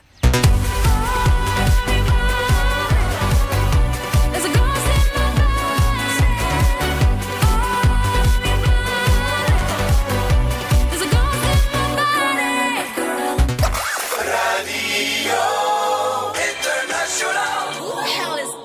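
Austria's Eurovision entry, a loud, upbeat pop song with a thumping steady beat and dense layered instruments, plays on Radio International with JP; near the end the bass and drums drop away, leaving a thinner, brighter breakdown.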